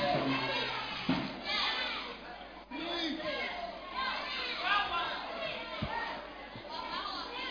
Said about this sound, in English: Wait. I, I hear people shuffling, whispering, talking. I, do you want a break? Okay, then okay. Then keep quiet and listen.